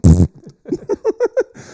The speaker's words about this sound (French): À un moment donné, on a eu entendu quelqu'un péter,